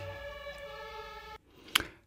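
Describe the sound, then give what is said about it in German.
A steady, buzzy ambulance siren tone, heard in the background in Berlin-Charlottenburg, holds for over a second at moderate volume, then cuts off abruptly, leaving quiet and a single sharp click. “Weil man die ganzen Krankenwagen hört. Schon mehrfach bei dir im Hintergrund.”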